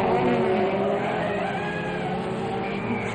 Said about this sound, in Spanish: Los traeré pegados a la cola. Después acelero mi auto deportivo y los dejo con un palmo de narices.